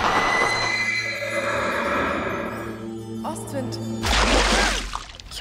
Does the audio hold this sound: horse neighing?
yes